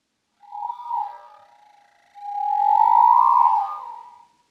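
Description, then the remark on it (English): Humpback whale song: a short swooping moan followed by a long, rising and falling tonal wail, haunting and resonant, heard alone without any talking. “In contrast to the brevity that's the soul of contemporary pop music, a whale song can last up to 30 minutes.”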